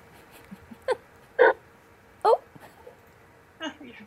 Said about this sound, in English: I heard a bark.